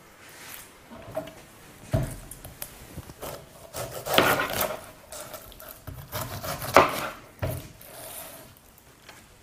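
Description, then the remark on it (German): A knife chops pineapple into small, roughly bite-sized cubes on a wooden board in a quick series of dull thuds and scraping cuts, with brief pauses between bursts and no one speaking. “schneiden Sie einfach ganz schnell und fix in kleine Würfel.”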